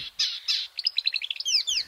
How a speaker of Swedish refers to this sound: Jag gillar kärrsångarens sång.